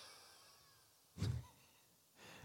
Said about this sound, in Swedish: Sen ska du tömma hela kroppen på luft. Alltså verkligen allt ska ur kroppen.